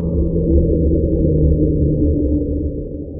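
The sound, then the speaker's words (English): An unexplained underwater ocean sound known as the slowdown: a deep, continuous droning rumble that holds steady and loud for a few seconds, with layered low tones and no voices. “There are other unexplained sounds with interesting names like the upsweep, the slowdown,”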